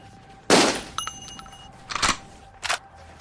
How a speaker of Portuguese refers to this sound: Começa a disparar com a metralhadora. Ele erra vocês.